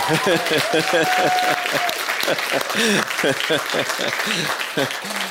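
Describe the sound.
Steady audience applause for a guest singer fills the whole clip, a dense continuous clatter of many hands, with voices and a brief whistle-like tone mixed in underneath.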